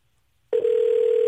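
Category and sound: signal or alarm, phone call ringback tone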